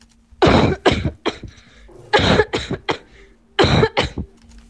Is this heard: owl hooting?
no